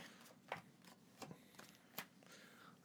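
Playing cards being shuffled softly by a man for another game, with a few brief papery riffles and taps at irregular intervals over a faint, hushed background.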